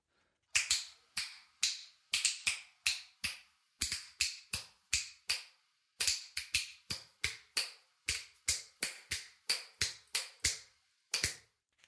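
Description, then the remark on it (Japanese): A long run of crisp finger snaps, about thirty of them in a loose, uneven rhythm with short pauses, each snap sharp and bright with a brief ringing tail, echoing in a bathroom where they were recorded. “私の指パッチンの音ですポール・マキさんに憧れ練習した成果です”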